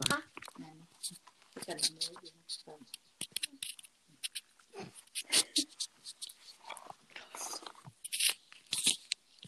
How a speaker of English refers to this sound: I'm crumpling paper really quickly, so so yeah. This is gonna hurt everyone's ears. Sorry, headphone users. Okay, you didn't do it as bad as when you just like crumple it on me like on FaceTime and I and like I have a seizure, but you know.